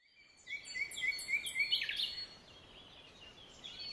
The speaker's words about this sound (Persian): در این وقت پرنده هایی که می توانستند بخوانند می خواندند و صحرا پر از آوازهای شادی آنها می شد.